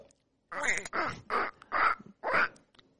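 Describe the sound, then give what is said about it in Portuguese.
A person imitates the cartoon voice of Donald Duck in five raspy, squawking bursts in quick succession, fairly loud, with no other sounds around them. “Tutorial, como faz pra imitar o Pato Donald?”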